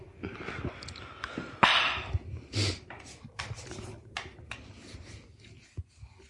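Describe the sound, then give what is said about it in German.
Scraping and rubbing of a small snus tin turned over in the hand, with scratchy bursts and soft clicks coming in irregular clusters, fairly quiet. “Das ist ein Handschmeichler. Die Snus, Snooze-Packung. Ein haptischer Genuss.”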